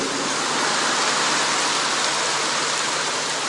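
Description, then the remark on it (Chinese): Enthusiastic applause from a large audience, a dense, steady wash of many hands clapping at once that holds at full strength for a few seconds, with no voices heard. “鼓掌鼓得很热烈，好像你们都很开悟一样。”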